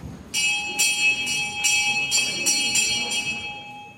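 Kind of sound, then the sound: signal or alarm, bell ringing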